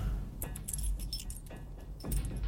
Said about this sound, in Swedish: Thomas tar bilnycklarna ur kvinnans ficka och går mot sin bil.